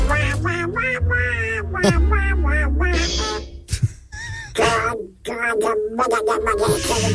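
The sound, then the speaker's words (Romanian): The cartoon character Donald Duck's raspy, quacking voice chatters loudly in a run of garbled, excited bursts, separated by brief pauses. “Donald Duck, desigur, care și-a făcut debutul pe 9 iunie 1934 într-un rol secundar.”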